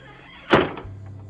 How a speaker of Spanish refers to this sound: Cepo se fue corriendo a casa y dio un portazo.